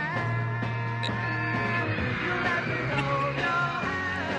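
A loud, dense live performance of a simple three-chord pop song with a drum beat, steady sustained tones and driving rhythm, a crowd's high-pitched screaming in the background blending continuously into the music throughout.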